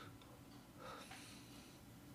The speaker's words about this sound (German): Ich finde übrigens die, die Hintergrundkulisse von deinem Schnaufen ins Mikrofon sehr schön. Immer so. Das ist, äh, das ist definitiv meine Rauchhalunge.